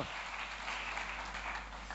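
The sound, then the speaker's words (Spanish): Steady applause from a crowd, a dense wash of many hands clapping at an even level for the full two seconds, with no voices on top. “Ese es lo más fuerte, ese aplauso.”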